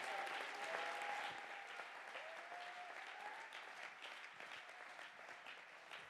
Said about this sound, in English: Everybody clap your hands and give God the praise.